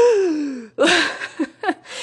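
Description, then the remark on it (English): A person imitates a family member's excited gasp on spotting treats in magazines: a drawn-out falling voiced cry followed by a sharp breathy intake and a couple of quick, airy catches of breath, fairly loud. “she always does that gasp.”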